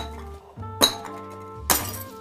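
Two sharp hammer blows strike a hard object about a second apart, each a bright clanking crack with a ringing, glassy edge, over a low steady hum; no one speaks.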